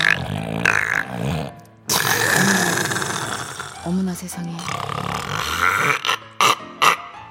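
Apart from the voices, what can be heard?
loud snoring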